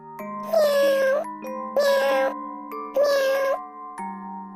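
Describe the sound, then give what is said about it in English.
Three drawn-out cat meows, each a loud, high, wavering cry about half a second long, spaced evenly over a steady musical backing of sustained tones. “I see a purple cat looking at me.”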